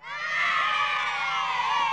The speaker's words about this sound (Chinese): 校长的话都还没讲完嘞，校园里啊就传来了一阵像大海啸一样，学生们震耳欲聋的欢呼声了。